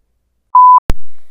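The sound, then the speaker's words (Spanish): A single steady, loud electronic alarm beep sounds for about a quarter second, then a sharp low thump hits and rings out as it fades. No voices. “Así que vamos a comenzar pero no sin antes hacer una alarma.”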